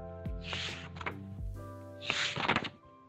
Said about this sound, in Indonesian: Selain itu, pas temenku kebangun jam satuan tadi, dia tuh awalnya kayak ngerasa biasa aja gitu, denger ada suara orang yang bolak-balikin halaman buku. Suaranya tuh kayak gini.